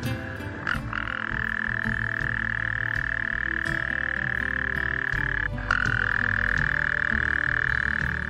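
A toad far away in a dense forest gives a long, steady trilling croak that runs for several seconds, breaks briefly, then starts again just as loud, over a busy forest background of other faint calls.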